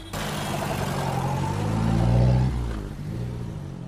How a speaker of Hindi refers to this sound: signal हरा हो गया ड्राइवर ने टैक्सी आगे बढ़ा दी